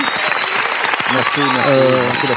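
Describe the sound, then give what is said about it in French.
A crowd applauds a participant with a dense, steady clatter of clapping, fairly loud throughout, while a voice rises over it partway through with drawn-out, tonal sounds. “je t'applaudis”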